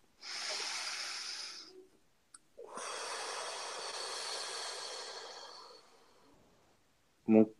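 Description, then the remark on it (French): A slow, deep breath: a breathy inhale of under two seconds, a short pause, then a long, steady exhale lasting about four seconds, followed by a brief voiced sound. “Une respiration.”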